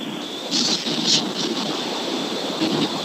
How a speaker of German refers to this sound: Ich höre nur ein lautes Auto.